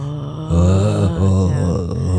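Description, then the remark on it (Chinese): A voice imitates a low, sustained growling roar, starting after a brief pause and holding steady for almost two seconds, with a couple of slight dips in pitch. “然后呢，他说他两天卡在那里的时候，一直听到那个人在讲话的声音， 哇塞， 而且还会发出低沉的怒吼声，”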